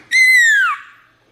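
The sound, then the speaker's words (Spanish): A child gives a single loud, high-pitched vocal cry imitating an eagle during a lesson, held steady for about half a second before sliding downward in pitch and trailing off. “A ver, a ver, así como águila.”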